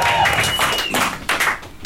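An audience applauding: dense, steady clapping that holds fairly loud throughout, with a thin high whistle cutting through early on and some crowd voices mixed in.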